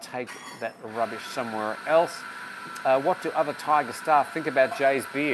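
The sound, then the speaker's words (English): A coffee maker runs steadily in the background, giving off a continuous hiss and hum beneath a man's voice as he talks throughout. “you can hear the coffee maker in the background there.”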